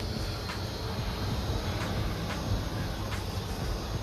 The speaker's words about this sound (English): It's a plane passing by.